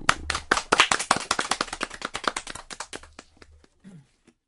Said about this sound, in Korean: 박수.